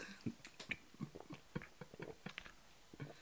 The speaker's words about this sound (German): Oh, Junge, das Schlucken. Hat man gehört und man hat gehört, dass du dich verschluckt hast, Digga. Ganz schlimm, wenn man lachen will und dann was, was Schönes, Dickes im Mund hat.